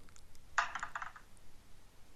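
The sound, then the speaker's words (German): Dice rattle and clatter across a hard surface in one quick burst of bright, clicky knocks lasting about half a second, then fade into quiet background hiss. No one speaks. “ja, wo war nochmal der Würfel?”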